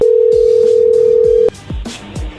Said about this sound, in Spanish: a ver, ahí entró la llamada, contéstale tú.